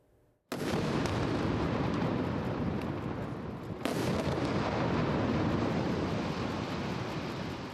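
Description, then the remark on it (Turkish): Two heavy blasts burst in about three seconds apart, each giving way to a loud, continuous rumbling roar of bombs exploding and gunfire in Gaza under Israeli bombardment that fills the whole recording, with no voices. “Gazze'de bomba ve silah seslerinin yerine ezgiler aldı.”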